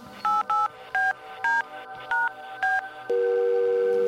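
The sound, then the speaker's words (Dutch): A phone number is punched in as a run of seven short, clear keypad tones in an uneven rhythm, followed by a steady ringing tone on the line. “Ik belde.”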